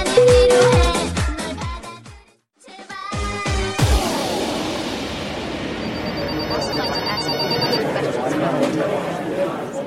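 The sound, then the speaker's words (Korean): After a brief musical sting, a busy office ambience swells up in a ratings survey agency's office in Seoul: many voices chattering together as many people make phone calls, while telephones ring repeatedly in the background, steady and moderately loud. “이곳은 청취율 조사 기관인데요. 많은 분들이 전화를 하고 계십니다.”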